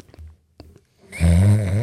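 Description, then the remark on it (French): After a few soft clicks and near-silence, a person imitates Abraham Simpson's snore with a single loud, raspy, buzzing breath that carries through to the end. “Oh, je fais le même ronflement que Abraham Simpson.”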